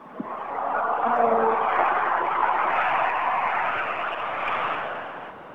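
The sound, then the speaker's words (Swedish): A distant rally car engine revs and roars steadily in a forest as the car approaches the finish, a broad rushing drone that swells, holds for several seconds, then eases off, with a brief tonal whine near the start. “Nej, men jag hör, jag hör motorvarv långt bort.”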